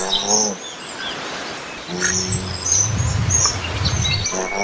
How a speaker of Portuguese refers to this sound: Esse é o som da estrelinha ametista, uma espécie que tem nome de joia